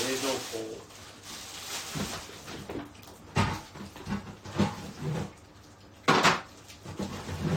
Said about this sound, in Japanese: 冷蔵庫冷蔵庫にビール入れてます